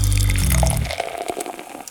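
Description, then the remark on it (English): Beer pours into a glass, a loud glugging stream at first that gives way to a frothy fizz and splashing as the glass fills; no one speaks. “So grab yourself a glass, pour yourself a beer, and get ready to hop forward in the brewing and beer business.”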